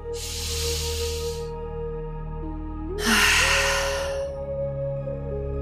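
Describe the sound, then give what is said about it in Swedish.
A deep breath taken lying on the back, right hand on the heart and left hand on the belly, shoulder blades drawn together to open the chest: one long, airy inhale, a pause, then an audible breathy exhale, both fairly loud over soft, sustained background music with no talking. “Dra ihop skulderbladen så att bröstet öppnas upp och ta ett djupt andetag.”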